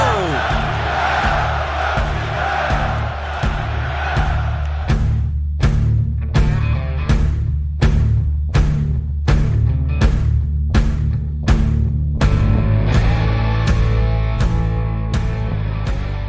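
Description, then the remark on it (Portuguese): A massive crowd of Flamengo fans at the Maracanã stadium in Brazil roars continuously after Flamengo wins the 2007 Carioca state title on penalties against Botafogo, then settles into a loud, rhythmic chant of "é campeão" (champion), with regular pulsing beats roughly every half second, dense throughout. “Vibra a grande torcida rubro-negra no Maracanã, em todo o Brasil, com o grito de é campeão!”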